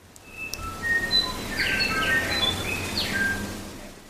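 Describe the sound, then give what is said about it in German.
Tui and other birds sing in a forest, with clear whistled notes, sliding tones and bursts of chirps layered over a soft, steady background hum. No one speaks. “Also man kann den Gesang von Tuis und anderen Schmuckvögeln hören, die durch die Wälder tönen.”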